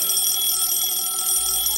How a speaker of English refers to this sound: Maybe, maybe he's calling us. I'll answer the phone.